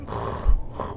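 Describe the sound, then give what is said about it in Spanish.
A voice imitates a backpack being dragged across dirt along a street: a rough, gravelly rasp lasting about a second, fairly loud, with a deeper grunting swell midway. “Pero si estás como cuando arrastras una mochila por, por la tierrita, por la calle”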